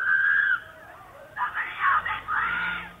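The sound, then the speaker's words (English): A woman screams and cries out for help in distress, in long, high, strained bursts with a brief pause between them, sounding thin, captured by a residential doorbell camera; the cries appear to come from a white car speeding down the street. “Captured on her doorbell camera are the sounds of a woman crying out for help.”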